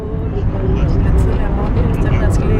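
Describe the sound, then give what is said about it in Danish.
Dense early-morning street traffic on the outskirts of northern Kabul, Afghanistan, heard from inside a moving car: a steady, loud low rumble of engines and road noise fills the whole stretch, with indistinct voices mixed in. “Trafikken er allerede tæt, og et mylder af mennesker er i gang med at gøre deres markedsstader klar med friske frugter”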